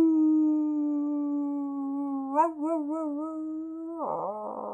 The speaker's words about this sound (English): Was it a howling? Was that a ah, human scream? What was it?